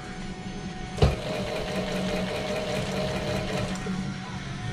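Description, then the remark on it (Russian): A sewing machine stitching the main part of a headphone ear pad with foam inside starts with a sharp clack and then runs steadily, with a fast even mechanical whirr and rapid needle rhythm continuing for several seconds without any talking. “Так, а как шьется амбушюра? Вот сшиваем уже основную часть поставили поролон.”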